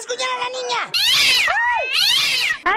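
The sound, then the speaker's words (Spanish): A 20-year-old cat named Satanás yowls and caterwauls loudly while scratching a girl, several drawn-out, wavering cries that rise and fall in quick succession, ending with a short clipped meow. “Qué malo es su gato, Diva de México.”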